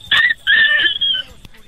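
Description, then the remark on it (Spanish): A child's voice imitates a puppy barking: a few short, high-pitched yapping barks in quick succession, fairly loud, with no other talking. “A ver, hazle como perrito.”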